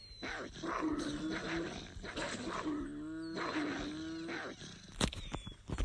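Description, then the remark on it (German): A fox in a video game gives repeated snarling, yelping calls, fairly loud, in several drawn-out bursts, ending with a sharp snap near the end and no talking. “Hier ist ein Fuchs.”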